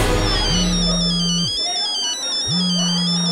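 A mobile phone ringtone plays, a warbling electronic melody looping steadily, accompanied by a low buzzing tone that cuts out and then starts again.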